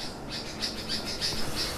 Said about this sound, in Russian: А, извините, у меня тут попугаи выясняют отношения.